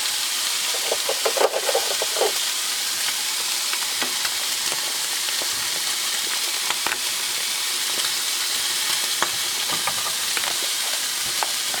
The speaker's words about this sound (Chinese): 那个油啊一直被逼出来，听这个声音，疗愈呢，但要小心不要喷到。